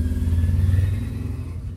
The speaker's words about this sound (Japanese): ごめんなさいちょっとバイク通っちゃって騒音が